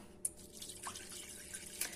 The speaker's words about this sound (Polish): Z racji tego, że już w, tej, w tym garnku mam dość dużo właśnie tej pasty z kurkumy, wlewam szklankę mleka,